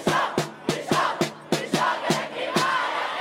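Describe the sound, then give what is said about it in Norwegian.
A crowd of Belgian schoolchildren skipping school to protest for the climate chants 'We are hotter than the climate' together in a steady rhythm while surrounding the EU Parliament, punctuated by sharp, regular claps or drum hits roughly every third of a second, loud and energetic throughout. “Vi er hottere enn klima, ropte de mens de omringet EU-parlamentet.”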